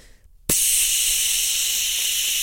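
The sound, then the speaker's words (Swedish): A voice imitates a can of fart-scented spray gas being sprayed in a toilet: after a brief quiet moment, a sharp, steady hiss bursts in and holds, loud, for about two seconds. “eh, och köpt fart gas. Alltså en burk oh, med fisdoft.”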